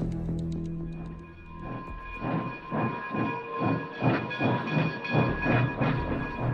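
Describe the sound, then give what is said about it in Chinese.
A train rolls along the rails with a steady, repeating clatter of wheels, over a constant hiss and faint tonal hum. No one speaks. “不要放弃，火车的下一站也就五分钟的路程。”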